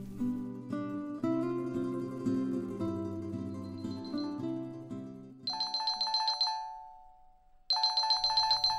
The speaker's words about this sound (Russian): За такими глубокими размышлениями Юнсун застал неожиданный телефонный звонок. Это был номер мужа, но вместо него быстро заговорил сын.